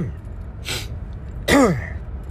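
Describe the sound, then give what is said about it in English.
Two short throat-clearing bursts: a breathy first one, then a louder, harsher second with a rough voiced rasp that drops in pitch. No talking. “Sorry, I'm clearing my throat because, like, uh, I I definitely gave a lot of oomph tonight.”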